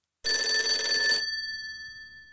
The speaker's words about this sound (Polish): Po chwili w jego pokoju rozległ się dźwięk telefonu.